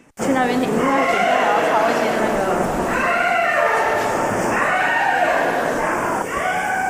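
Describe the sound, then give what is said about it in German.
A young woman, a user of a therapeutic riding stable, loudly imitates a horse's whinny as she runs enthusiastically through a large exhibition hall at Songshan Cultural Park, her voice rising and quavering in a string of neighing, bleat-like calls that run on without pause for several seconds. “Wer da wird, ist kein Pferd, sondern eine junge Frau, die voller Begeisterung durch eine große Ausstellungshalle läuft.”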